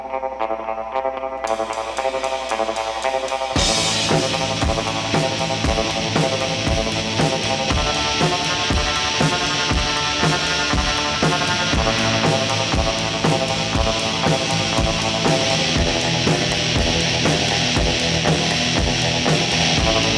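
A loud, distorted rock song with driving drums and fuzzy electric guitar, starting with a brief sparse intro before the full band crashes in and plays steadily throughout.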